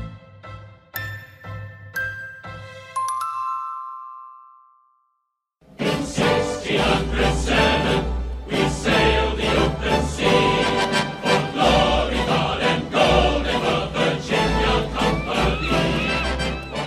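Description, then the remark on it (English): A song from the 1995 Disney animated musical film Pocahontas: sparse, tinkling chime-like notes fade into a brief silence, then a full, loud orchestral arrangement with deep bass surges in and carries on. “This is, of course, one of the totally kick ass songs from the 1995 Disney animated movie Pocahontas.”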